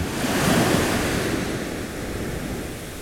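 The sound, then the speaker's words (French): Ocean surf washes in steadily, a broad rushing swell that peaks early and then eases into a fizzing, hissing wash of foam, fairly loud with no voices. “Le bruit du roulement des vagues est hypnotisant, il calme les esprits.”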